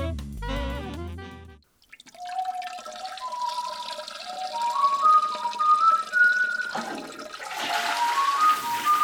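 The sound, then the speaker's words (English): A brief musical sting gives way to water running from a bathroom tap as someone washes their hands, a steady rushing hiss with rising gurgling tones that swells louder toward the end. No one speaks. “Well, I heard the water running from the bathroom, but it seems like only one of your hands is wet.”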